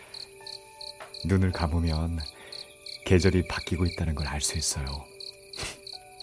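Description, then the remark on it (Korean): A cricket chirps on a summer night in steady, evenly spaced high-pitched pulses that run throughout, fairly soft and constant, while a person speaks calmly over the middle stretch. “희미하게 귀뚜라미가 울고 있어요.”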